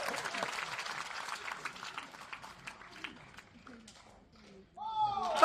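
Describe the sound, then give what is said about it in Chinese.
An audience breaks into dense, crackling applause for a singer's performance, gradually thinning and fading over several seconds, then a loud voice calls out just as the clapping dies away. “远的甭说，说眼前，唱了半天，连点儿掌声都听不见。”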